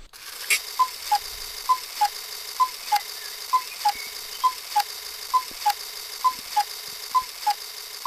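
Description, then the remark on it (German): A Swiss cuckoo clock ticks steadily, about three crisp ticks per second, alternating between two slightly different pitches in a tick-tock pattern, with no voices. “Ja, das ist eine Schweizer Kuckucksuhr.”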